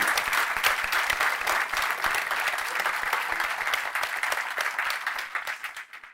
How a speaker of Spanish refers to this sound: Un aplauso para las dos. A todos.